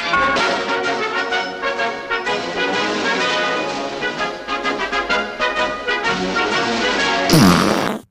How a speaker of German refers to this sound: Ja, der ikonische Furz zum Schluss, der muss natürlich auch immer sein.